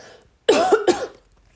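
human body sound, cough and throat clearing

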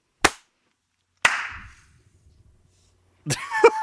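human body sound, hand clapping

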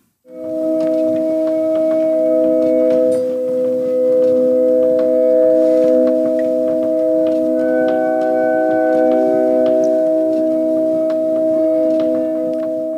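glass harmonica playing

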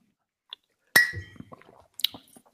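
household object, beer glasses clinking

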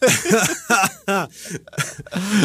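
human body sound, coughing

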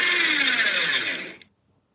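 household object, paper shredder running

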